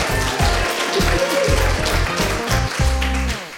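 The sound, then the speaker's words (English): The audience of St Augustine's Moreland Anglican Church in Melbourne claps steadily as a guest is introduced, a dense wash of many hands, with low sustained musical chords playing underneath and the sound fading slightly at the end. “are you pleased that people in your church here clapped as I uh, introduced uh, you?”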